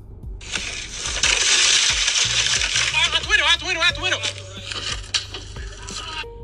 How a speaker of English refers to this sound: Okay, they shattered the back window of the vehicle to attempt to get to the guy.